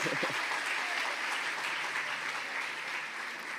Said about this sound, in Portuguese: Aplauda Jesus pelo nosso louvor.